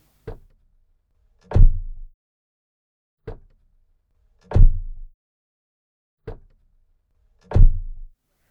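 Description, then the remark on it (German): An acoustically optimized car door, improved after a version was rated poor in testing, shuts three times at steady intervals, each a light mechanical click followed by a deep, solid, well-damped thud, with no talking. “Und so klingt sie optimiert, wie der Fachmann sagt.”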